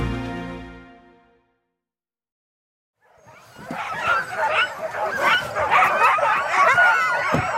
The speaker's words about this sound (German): Ihre Namen stehen auf dutzenden bunt bemalten Hundehütten und davor, darauf, darin oder daneben die angeleinten Huskies. Ihr Gebell tönt weit über das schneebedeckte Feld